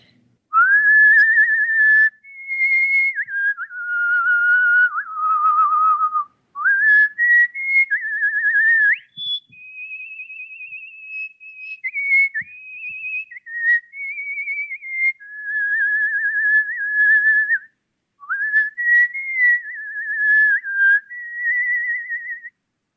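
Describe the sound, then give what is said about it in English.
A person whistles a slow, lyrical operatic melody solo, with sustained pure tones gliding smoothly between pitches and brief breaths between phrases, close and clear with no talking. “Okay, um, this is an excerpt from O mio babbino caro, which I'm going to perform today.”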